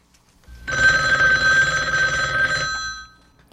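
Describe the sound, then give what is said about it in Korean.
A telephone ring tone of an outgoing call placed from the United States to someone in Korea sounds once for about two seconds, a steady buzzing trill with bright overtones, then cuts off, leaving near silence. “전 한국에 있는 그에게 전화를 걸었죠.”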